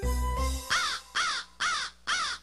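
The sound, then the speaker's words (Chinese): A small black bird, standing on a frame that carries power lines, caws four times in a steady, evenly spaced rhythm, each call loud, harsh and raspy, following a brief low droning tone at the start. No one speaks. “只见一只小黑鸟正站在拉电线的架子上，悠闲地看着他。”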